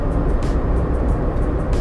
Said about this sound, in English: My current situation is 10 freeway heading west. I am going to Long Beach this morning